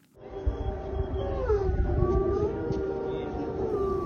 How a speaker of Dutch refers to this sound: Ja, je hoort hier wolven huilen in de dierentuin van Kharkiv tijdens het luchtalarm. Even een reminder dat het natuurlijk ook een dramatische situatie is voor dieren in Oekraïne aan het front.